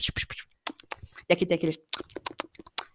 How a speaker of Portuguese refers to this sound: Esse é o som do álcool em gel quando você passa na mão.